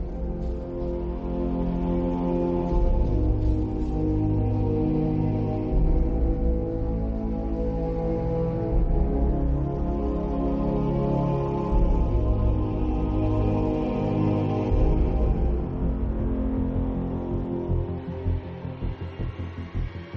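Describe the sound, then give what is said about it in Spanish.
The main theme of the video game Batman: Arkham Asylum plays on its own: dense, sustained chords over a heavy low bass, holding a steady full loudness for the whole stretch with shifting harmonies and no voices. “¿Qué nos quedamos escuchando antes de pasar a hablar del juego? El tema principal del juego.”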